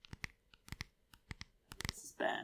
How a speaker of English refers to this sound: We should like all be allowed to just whisper and like do do do sensual tapping. Or like, wait, wait, here's my cell phone. Enjoy, listeners.